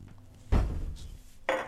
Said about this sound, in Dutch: Ik heb een groot glas voor thee en ik heb een iets kleiner glas voor koffie. Hoe cares? Ikke, eh, want ik wil graag koffie. En ik pak nog een glas voor mijn kleine.